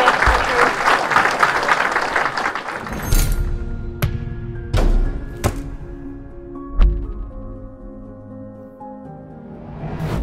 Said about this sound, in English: All right, thank you. Uh, another round of applause for Professor Richard Werner and our panel.